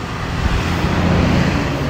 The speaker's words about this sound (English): I'll let the truck pass.